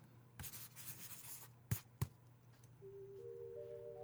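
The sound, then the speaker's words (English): A pen scratches quickly across paper as a guest signs a hotel register, followed by two crisp taps as it's set down, then a faint steady tone over a low background hum. “If I could get you to sign right here, I'll go get your keys for you.”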